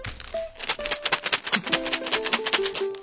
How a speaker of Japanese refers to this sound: さあ、今の音は何の音だかわかりますか ?3、2、1、どうぞブー。多分当たんないと思うんで、正解は、えっ、ー、と、なんだこれ、マーブルチョコレートの袋を振っている音でした。